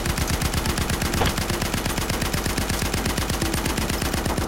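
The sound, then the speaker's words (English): Loud, sustained video game machine gun fire, a rapid and steady stream of sharp shots that runs unbroken from start to finish, with no voices. “That was a loud machine gun.”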